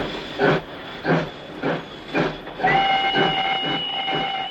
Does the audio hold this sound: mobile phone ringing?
no